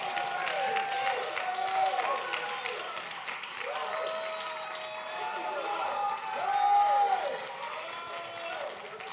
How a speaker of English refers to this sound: Clap those hands, all ye people, and shout unto God with a voice of triumph. Oh, clap your hands, all ye people.